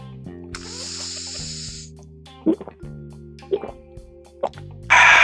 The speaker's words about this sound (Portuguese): nesse momento eu peço para você pegar o seu copinho d'água, a sua garrafinha d'água, vamos dar o golinho d'água clássico do Sonic Cast juntos. Atenção, vou contar de trás para frente até 3. Então vai ser no 1. Um. É 3, 2, 1, um, gole d'água do Sonic.